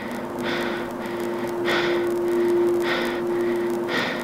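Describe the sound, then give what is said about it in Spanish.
Heavy, slow breathing comes through a line in four rhythmic breaths, each a broad hissing swell, over a steady electronic hum and faint static. Nobody speaks. “No hubo respuesta, solo su respiración.”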